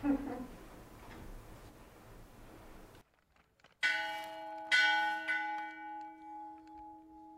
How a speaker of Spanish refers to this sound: Se quedó con la reata en la mano el alcalde de Cuautitlán Iscali ¿no? Le amarraron bien el mecate para que pudiera jalar la campana. Creo que nada más alcanzó a dar una o dos campanadas, ¿no? Creo que una, una y media